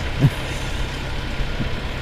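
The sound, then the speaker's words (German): A combustion car engine rumbles steadily, a low, even drone with a brief bump near the start. No one speaks. “Moment, Moment, das ist hm. doch kein E-Auto”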